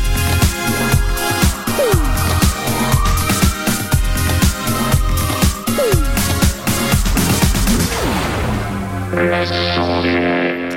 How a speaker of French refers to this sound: Ouais, on va essayer de s'écouter un truc à consonance un peu son britannique.